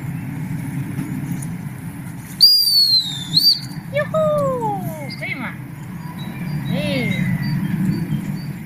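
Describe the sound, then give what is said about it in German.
A dog training whistle, blown by a handler training a dog, gives one loud, high-pitched blast lasting about a second, followed by a few shorter, falling whistle-like tones, all over a steady low rumble like an idling engine. “Ich gehe jetzt, nachdem ich pfeife, ein Schrittchen rückwärts.”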